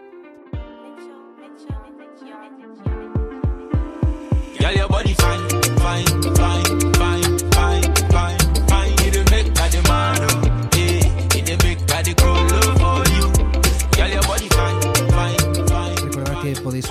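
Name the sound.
played music track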